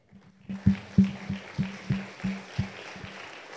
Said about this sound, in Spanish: Y aunque ustedes no sepan quiénes son, vamos a darles un aplauso a esas personas.